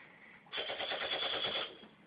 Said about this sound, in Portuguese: Não, tem que dar um tiro, né, porra?